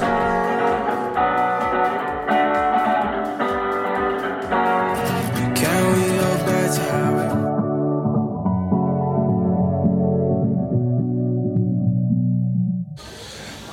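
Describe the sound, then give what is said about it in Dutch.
A new pop single plays on the radio, loud, with a steady beat and layered instruments that give way to long held chords before cutting off abruptly near the end. “Ik heb de nieuwe single van eh, … en die klinkt zo.”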